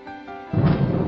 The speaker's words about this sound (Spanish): En ese instante, truenos ensordecedores hicieron temblar el cielo y la tierra.